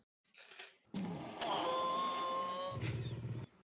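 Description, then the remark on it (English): A person imitating a baby T. rex growls out a long, throaty roar during a voice recording take, starting with a breathy lead-in and holding a rough, strained, fairly loud tone for about two seconds before it cuts off. “Can I get one more take at the at the baby T Rex sound?”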